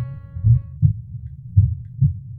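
A deep, thudding heartbeat pounds loud, its paired beats repeating in a steady rhythm with a faint low hum underneath and no voices.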